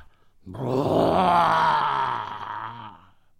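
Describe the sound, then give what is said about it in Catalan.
A human voice imitates the snow giant's deep bellowing roar from inside his house: one loud, drawn-out, growling groan lasting a couple of seconds, its low pitch sagging as it fades out. “Aquests bràmols semblaven dir «Qui gos entrar a casa meva?»”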